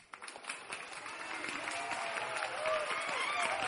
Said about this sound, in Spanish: Sí, Señor, te alabamos, aplaudimos en tu honor, Señor, y entre gritos de júbilo te ofrecemos el fruto de nuestros labios la alabanza que te pertenece, Señor.